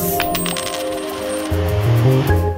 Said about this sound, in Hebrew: כל פעם אני חושב שנפל פה מטבע כן, באמת.